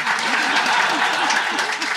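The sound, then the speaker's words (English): Steady, dense, loud applause from a sizable audience, filling the whole moment with continuous clapping, with faint voices murmuring underneath. “I mean, if he's got people in there applauding, then it's a whole other issue.”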